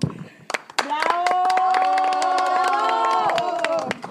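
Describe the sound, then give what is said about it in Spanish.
A burst of applause with sharp, scattered hand claps, joined by loud sustained cheering and whooping voices that hold steady for a few seconds before trailing off. “Comadres, un aplauso a ustedes por estar aquí en nuestro episodio de hoy.”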